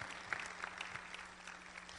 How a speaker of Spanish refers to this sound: ¿Alguien puede darle un aplauso al Señor?